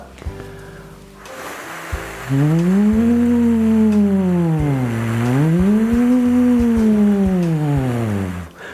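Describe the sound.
After a quiet moment, one voice sustains a steady hum that sweeps down, rises, then falls again in smooth, siren-like glides, done as a vocal breathing exercise. It is loud, with no talking.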